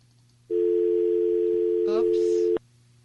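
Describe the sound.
A steady, loud telephone dial tone hums continuously for about two seconds after a phone call with a caller in Tennessee is cut off by mistake, then cuts off abruptly, with a brief voice fragment and crackle overlapping near the end.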